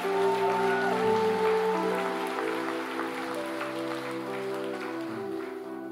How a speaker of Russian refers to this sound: Дай огромные аплодисменты Господу.